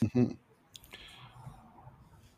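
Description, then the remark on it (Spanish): A short burst of voice, then a faint, rattling buzz with clicks from a mobile phone vibrating against a hard surface, chattering like a dot-matrix printer. “Se escuchó un sonido como de impresora de matriz de puntos. Era un celular vibrando”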